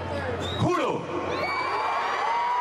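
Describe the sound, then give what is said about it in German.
A huge crowd of thousands in Venezuela cheers steadily as Juan Guaidó declares himself interim president, a dense roar of voices with whoops and shrill whistles rising out of it, holding loud from start to finish. “Unter dem Jubel Tausender erklärt sich Guaido zum Übergangspräsidenten.”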